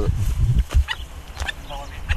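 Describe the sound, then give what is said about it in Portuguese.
A falcon gives a series of short, shrill cries, repeated at irregular intervals over a low rumbling background, moderately loud. “o crucitar de um falcão não é propriamente um som familiar para Jaime Prieto”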